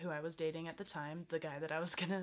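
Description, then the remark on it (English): A small bell on a cat's collar jingles continuously in quick, light shakes as the cat scratches an itch, beneath steady conversational speech with a brief laugh. “If you hear jingle bells, that's just the cat.”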